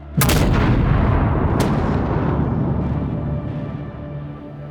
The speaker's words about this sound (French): Mais alors que la nuit tombe, une deuxième explosion, bien plus violente encore, secoue le Vésuve.